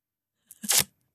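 A short, loud rip of tape pulled off a roll: a couple of quick sticky clicks, then a harsh, bright tearing burst lasting under half a second, alone.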